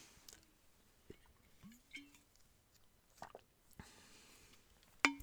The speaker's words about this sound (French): je vais prendre une petite gorgée d'eau.